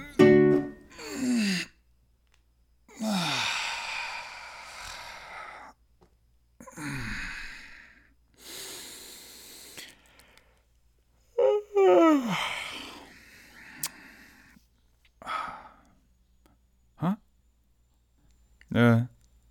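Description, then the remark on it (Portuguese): A person yawns and stretches several times, long drawn-out voiced yawns sliding down in pitch into breathy sighs and groans, separated by short quiet pauses, with no talking. “Desculpem não pedir desculpa por isto, mas formei-me em locução e disseram-me que bocejar e espreguiçar faz bem à voz.”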